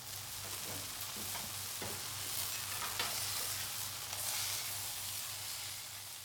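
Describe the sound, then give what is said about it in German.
A Florentine-style veal steak, 3 to 4 cm thick, sizzles steadily in a hot pan, a dense, continuous crackle with a faint low hum beneath and no voices. “È una bistecca di vitello alta 3 o 4 cm e può pesare fino a 2 kg.”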